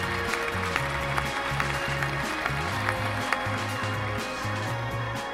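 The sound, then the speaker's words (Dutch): A sustained burst of crowd applause, dense and steady clapping throughout, with a low stepping bass tone running underneath and no one speaking. “Geef ze nog een hartelijk applaus.”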